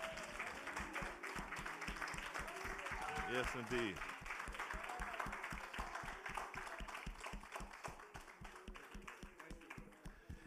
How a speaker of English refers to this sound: Come on, let's give Jesus Christ an applause, everybody.